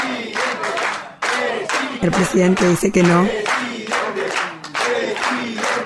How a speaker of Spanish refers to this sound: Lampone comienza a cantar y va caminando aplaudiendo. Todos lo acompañan.